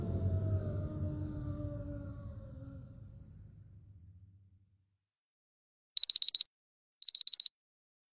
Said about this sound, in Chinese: 一阵闹钟的响声，唐淑婷一个窜高跳了起来。